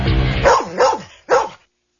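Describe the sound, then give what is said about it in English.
A search dog barks three times, two quick loud barks followed by a short pause and a final bark, with no voices around it. “There's nothing else quite like a search dog.”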